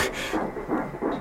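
A fetal heartbeat at eight weeks of pregnancy on a doppler monitor: fast, strong, rhythmic whooshing pulses, about three per second, over a steady hiss. The pulses are moderately loud and there is no talking.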